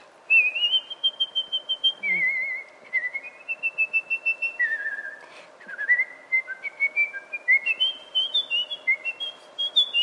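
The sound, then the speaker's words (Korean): A person whistles a lively melody of quick, trilling notes that rise and fall across a high range, phrased in short bursts with brief pauses, clear and fairly loud with no talking. “네, 그래서 휘바람 저는 휘바람 너무 잘 부시잖아요.”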